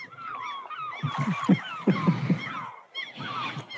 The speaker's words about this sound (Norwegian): Du kjørte en sånn der måsevignett, så vi tenkte vi skulle bytte et lite tema.